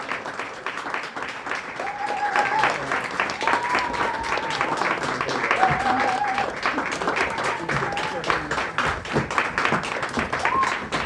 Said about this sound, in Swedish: Och medan applåderna ljuder så tar vi och fyller scenen med cosplayare. Nu tar vi in samtliga deltagare. Så håll applåderna uppe nu, det är de värda när de äntrar scenen.